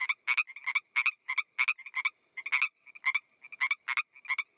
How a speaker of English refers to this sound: I noticed the sound of frogs seemed louder and closer